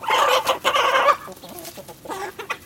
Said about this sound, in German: Und wir haben als Infotier diese Woche das Huhn.